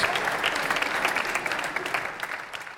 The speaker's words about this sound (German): Dafür schon mal einen donnernden Applaus für die Cheerleader Gruppen von Tura Haxheide, das ACP Project.